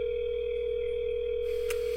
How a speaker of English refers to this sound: a fax line? McDonald's fax line? Why the fuck you motherfuckers got a fax line? Can you fax me a burger? what kind of McDonald's has a fax machine?